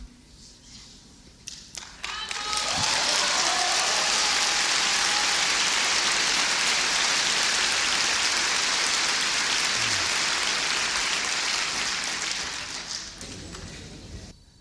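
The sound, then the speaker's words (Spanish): Applause starting with a few scattered claps, quickly swelling into dense, loud, steady clapping that holds for about ten seconds before tapering off. “Pues, son aplausos.”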